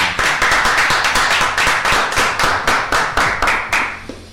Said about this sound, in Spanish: Ay. Un aplauso